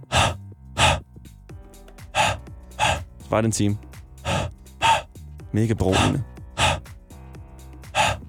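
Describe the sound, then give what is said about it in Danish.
Sharp, breathy huffs repeat at a steady pace as someone exhales onto a CD to fog it for cleaning. A voice makes the sound loudly, with a few words spoken between the breaths. “For eksempel ser jeg allerede nu en efterspørgsel for min en times video, der bare er lyden af det der, når man ånder på en CD for at rense den.”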